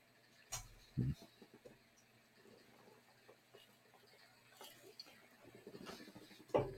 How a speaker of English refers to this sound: sorry, I hate to make y'all listen to me drink.